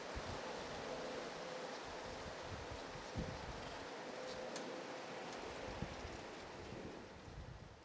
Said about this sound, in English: And here is the sound of outside of our home, which is super uneventful, but you can hear a little bit of wind. And just, uh, I just wanted to record the state of where we are uh, at this time of night.